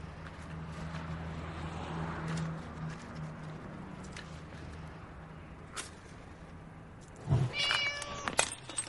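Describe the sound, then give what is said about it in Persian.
A steady low hum and faint background noise give way near the end to a cat's meow, a short rising, harmonic cry followed by a brief second call. No one speaks. “شیشه عطر پیشک انداخت”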